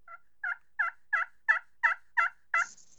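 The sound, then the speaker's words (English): A slate turkey call run at a completely different angle, in a steady series of eight clear, evenly spaced yelps, moderately loud, ending with a short high-pitched scratchy squeak. No one speaks. “you can just run it at a completely different angle and it sounds like this.”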